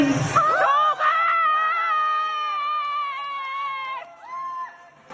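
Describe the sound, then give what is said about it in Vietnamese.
Loud cheering at a graduation ceremony on a rainy day, dominated by a long, high, sustained shout held for about four seconds, followed by a shorter second cry as the noise fades. “cho các bạn chứng kiến một chút lễ tốt nghiệp của mình qua âm thanh này nhé”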